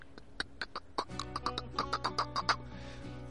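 A clicker creature's guttural clicking, the fungus-headed creature's characteristic sound from the video games: about a dozen sharp clicks in a quick uneven rhythm, joined halfway through by a low rasping drone beneath them. No one speaks.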